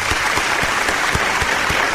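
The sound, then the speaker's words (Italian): A steady burst of applause for a group of singers, many hands clapping densely and continuously with no pauses, loud and bright, without any voices over it. “Eh, tra l'altro intonati e allegri, bravi ragazzi, complimenti, applauso per voi.”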